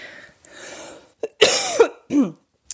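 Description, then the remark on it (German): A person who is feeling unwell coughs and clears their throat: a rough, breathy rasp, then a couple of short, forceful cough bursts in quick succession, with no talking. “Entschuldige mich an dieser Stelle für meinen Husten.”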